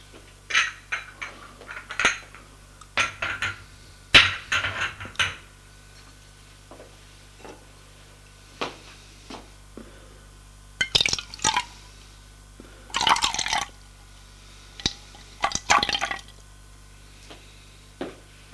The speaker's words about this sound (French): Elle, elle va préparer son thé. Ça lui fera du bien.